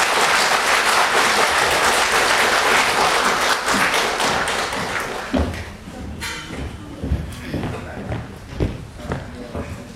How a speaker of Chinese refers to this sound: 大家以热烈的掌声欢迎蒋老师。